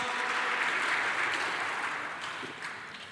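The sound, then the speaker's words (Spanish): A church audience claps together for the Lord during a sermon, a dense, steady wash of applause that stays fairly loud before gradually fading toward the end. “Le podemos dar un aplauso al Señor.”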